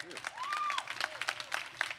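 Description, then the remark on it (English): A small group claps in a brisk, scattered rhythm for a couple of seconds, with a brief whoop or whistle rising over the applause early on. “Yeah, clap, clap it up for my guy.”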